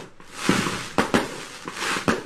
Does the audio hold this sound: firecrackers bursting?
yes